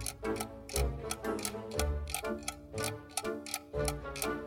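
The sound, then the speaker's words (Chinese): A clock's second hand ticks in a quiet living room late at night, in a steady, even rhythm, sharp clicks repeating about twice a second over a sustained tonal musical backdrop with deep low notes; no one speaks. “客厅里安静极了，只剩下时钟秒针转动的声音。”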